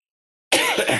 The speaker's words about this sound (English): I should have coughed then instead of coughing in between paragraphs.